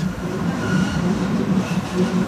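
A train rumbles past, a steady low roar with faint rhythmic rattling of the wheels, loud and continuous throughout with no voices.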